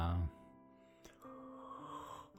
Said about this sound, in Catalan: Sospira, mm, badalla